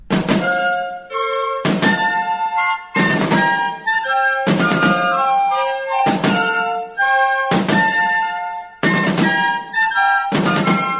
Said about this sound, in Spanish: Hasta ese entonces, las bandas militares tocaban marchas realistas, o sea, españolas, como esta.